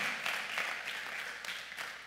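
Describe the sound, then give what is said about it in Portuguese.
A crowd applauds steadily, many hands clapping in a dense, continuous patter with a few sharper bursts, moderately loud, with no speech over it. “Ah, dá um aplauso aí, pelo amor de Deus.”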